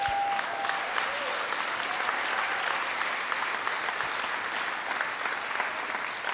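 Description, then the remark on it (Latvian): An audience applauds Jesus Christ steadily for several seconds, a dense wash of clapping hands that stays loud and even throughout, with no voices rising above it. “Jēzus Kristus, dod viņam aplausus!”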